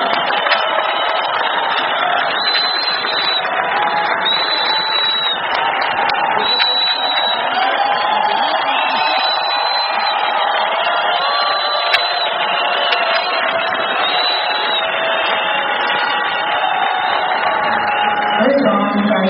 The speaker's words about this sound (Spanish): Fuerte aplauso a los amigos nuestros.